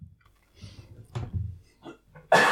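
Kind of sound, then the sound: human body sound, coughing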